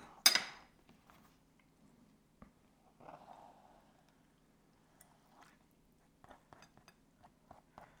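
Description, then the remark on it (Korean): Utensils clink and scrape against a plate as food is put onto it, with a sharp clatter at the start, then softer scattered taps and a brief soft scraping, ending in a quick series of light clinks. “그리고 또 접시에 올려주고.”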